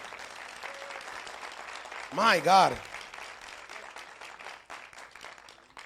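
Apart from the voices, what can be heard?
applause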